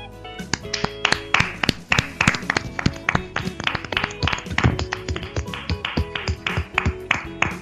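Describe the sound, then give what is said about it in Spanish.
A small burst of applause for the radio show Radio Chips: sharp, loud hand claps in a fairly steady rhythm for several seconds, with no one speaking over them. “Bueno, después de oír esto, chavales, ahora sí, un aplauso para Radio Chips.”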